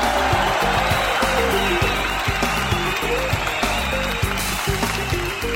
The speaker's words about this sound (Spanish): Eso, fuerte el aplauso. para el pastel.